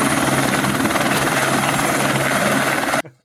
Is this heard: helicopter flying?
yes